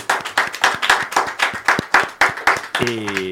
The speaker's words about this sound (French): Donc on va vous applaudir à nouveau.